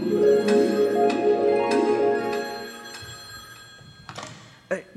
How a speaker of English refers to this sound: About an hour later, I had just walked in the door when I got a phone call.